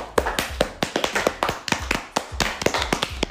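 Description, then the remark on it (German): Crisp hand clapping from one or a few people, roughly a dozen sharp claps in a quick, slightly uneven rhythm, with no talking over it. “Ein Applaus bitte an alle, die das hören.”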